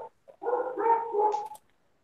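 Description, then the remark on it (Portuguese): A dog vocalizes in the background, a brief yelp followed by a drawn-out, wavering bark-like howl lasting about a second, moderately loud with no talking over it. “O cachorro tá discordando de mim, tem um cachorro latindo aí.”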